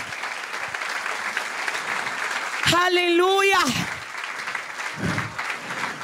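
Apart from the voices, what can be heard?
audience applause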